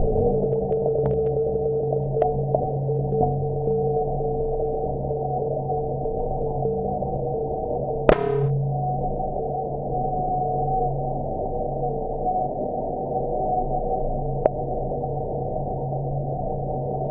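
A very fast computing machine, about the size of a large window, drones steadily, with layered low electronic tones and a constant hum, broken once by a sharp swept chirp midway and a few faint ticks. No one speaks.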